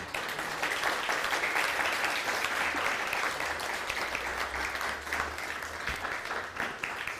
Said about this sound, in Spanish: Por favor, dale un fuerte aplauso al Todopoderoso.